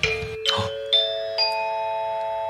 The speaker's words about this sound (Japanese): 学校で聞くようなチャイムが